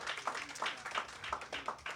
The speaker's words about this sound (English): Give her a round of applause for sure.